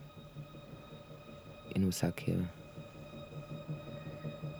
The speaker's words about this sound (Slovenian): In tako či trak se je vklopil